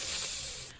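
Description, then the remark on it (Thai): A person hisses through their teeth in one sustained, breathy burst, imitating the threatening hiss of a snake, loud before cutting off abruptly. “อันนั้นเขาเรียกคูแล้วงูมันร้องได้เหรอ มันก็ร้องไม่ได้ไง มันขู่ได้อย่างเดียว”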